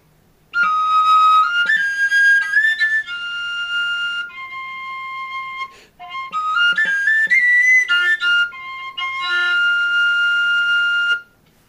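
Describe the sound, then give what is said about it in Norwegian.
A willow bark flute, made from a twig bought from an old man on Radøy outside Bergen, plays two short phrases of bright, breathy tones, sliding up through a few pitches and holding steady notes, with a brief pause between the phrases and no talking. “Så det er en faktisk ei seljefløyte.”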